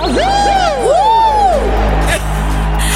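A crowd cheers loudly, with many overlapping voices whooping and shouting in rising and falling yells that fill about two seconds before quickly dying down.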